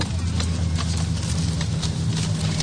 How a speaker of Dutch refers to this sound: Nou, wat je dus ziet is dat het heel druk is aan boord en mensen staan allemaal op.